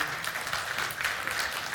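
A crowd applauds with steady, dense clapping that holds an even loudness throughout, a continuous wash of many hands with no voices standing out.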